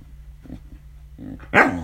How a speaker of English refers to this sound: Lie down. Lie down. Good dog. Good dog. Good dog.